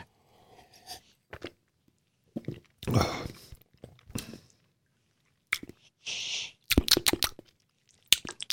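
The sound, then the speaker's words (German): Crunchy chewing and biting on a piece of food: irregular bursts of crisp crunches separated by short pauses, loud and wet-sounding, with a few sharper bites toward the end and no talking. “Ja, dann nimm doch mal ein Stückchen. Das, ich nehme auch ein Stückchen.”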